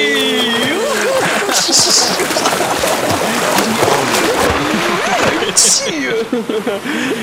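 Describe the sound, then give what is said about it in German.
Continuous loud splashing and churning water as two people run hand in hand into the waves on a count of three, with excited shouting and voices throughout over the wash of waves. “Sollen wir zusammen ins Wasser rennen?”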